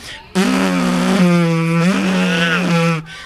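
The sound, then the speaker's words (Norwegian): A person imitates a revving engine with a loud, buzzing vocal drone lasting about three seconds, its pitch dipping and rising as if the motor surges. No speech. “Kanskje det skal være lyden til motoren når du eh, bruker en boost eller noe.”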